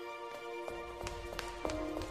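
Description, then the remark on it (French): Quick running footsteps of a man in a white coat hurry from door to door along a university corridor in Karlsruhe, Germany, in winter 1909, about six sharp, evenly spaced strikes over a steady low hum, moderately loud. “Un homme en blouse blanche, chauve, petite lunette posée sur un nez pointu, court de porte en porte.”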